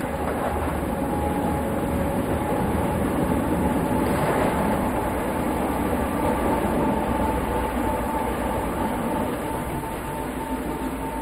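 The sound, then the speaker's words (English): Loud, steady rumble and rattle of a train rolling along the rails, heard from aboard on a cloudy day through an industrial area beside a highway, with a brief swell of extra noise partway through as another train, a red one, rushes past. No one speaks. “We're passing another train.”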